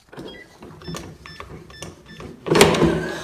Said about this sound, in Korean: 제가 아파트 1층에 살고 있는데 외출 후 집에 도착해서 비밀번호를 띡띡띡띡 누르고 현관문을 열었어요.